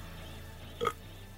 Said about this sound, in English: Did he just burp on his podcast?